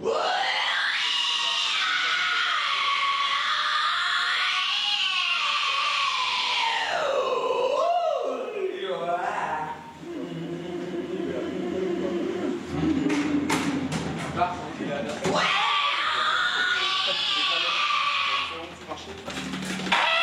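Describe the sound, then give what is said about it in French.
A metal singer runs through harsh screamed vocal warm-ups before a concert, strained, bleating wails sliding up and down, then a stretch of low gritty growls before the high shrieks return, loud. “Voici ce que donnent les vocalises avant les concerts qu'on peut voir dans le documentaire”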